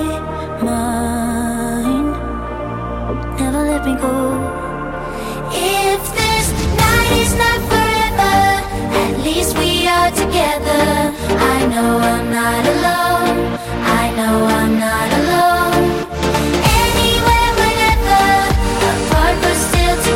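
An electronic pop song plays loudly, opening with sustained synth chords before a driving beat and bright layered melody kick in, continuing steadily with no one talking over it.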